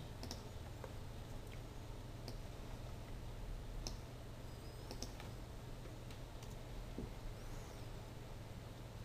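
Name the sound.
computer mouse clicks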